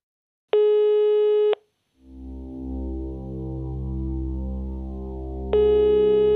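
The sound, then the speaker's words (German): A telephone ringing tone sounds as a steady one-second electronic beep while a caller tries to reach an insider source. After a brief pause, a low, dense droning hum fades in, with a second ring tone starting over it near the end. “Ich bin bei diesem Anruf ziemlich aufgeregt. Ich will den Maulwurf erreichen.”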